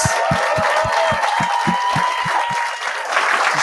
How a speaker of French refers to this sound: J'aimerais ça qu'on donne une bonne main d'applaudissements pour Julien Lacroix et Gabriel Dalmeda Fredas.